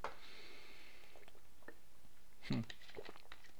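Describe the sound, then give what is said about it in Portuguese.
Quiet mouth sounds of someone sipping water, with small wet clicks and a distinct gulp about two-thirds of the way through, and no talking. “Deixa eu dar um golinho na água aqui.”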